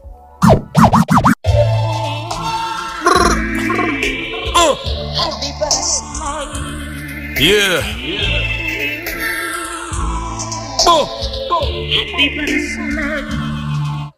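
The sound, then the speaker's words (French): A hip-hop beat plays: a steady, punchy drum groove over a full musical backing, with a few sharp scratch-like bursts at the start and sweeping synth tones rising and falling throughout. “Il a, en parlant de nos beats, pour moi, il y a sûrement peut-être un, de mes chouchous des deux albums réunis on va écouter de suite cet extrait.”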